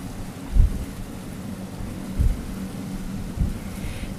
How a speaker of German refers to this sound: Aber weil der Wind recht stürmisch weht, lassen die Wellen die MS Julchen ganz ordentlich schaukeln.